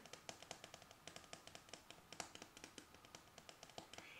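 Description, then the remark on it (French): Rapid, soft fingernail taps patter irregularly on a hard surface, dozens of crisp clicks that together sound like hail falling. No one speaks. “Attention, on fait tout doucement avec les ongles. Oh, ça fait de la grêle.”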